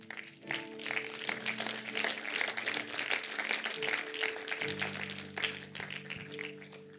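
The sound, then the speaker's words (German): A church audience applauds steadily for several seconds after a prayer in which a person accepted Jesus, a dense wash of many hands clapping, with sustained keyboard or organ chords droning softly underneath. “Warum jetzt alle geklatscht haben, ist, weil sie wissen, da wo nur ein Mensch zu Gott gekommen ist, ist Party im Himmel.”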